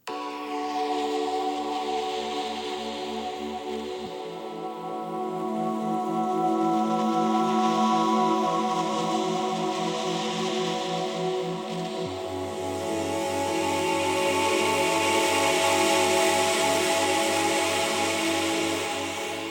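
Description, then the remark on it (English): Soothing ambient soundscape designed for period pain relief: sustained, slowly shifting chords over a steady rain-like hiss, calm and even throughout, with no voices. “Now, I'd love for us to listen to an example of this music before we jump into the interview.”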